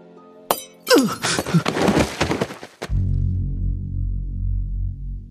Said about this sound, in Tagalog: Napahiga ako sa gulat ng sumabog na parang dinamita ang basong nakapatong sa Ouija board.